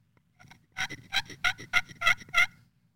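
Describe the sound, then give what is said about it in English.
A rhythmic run of about six raspy, high-pitched turkey yelps scratched out on a glass friction call by drawing an oval on the glass, evenly spaced, with a faint low rumble underneath. “I'd almost say it's more of an oval um, that I'm drawing on this glass. So just the basics. I'm just making a sound.”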